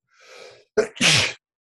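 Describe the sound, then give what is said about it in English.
A single loud sneeze: a breathy inhale builds up, then a sharp burst and a forceful, hissing release, with no talking around it. “bless you.”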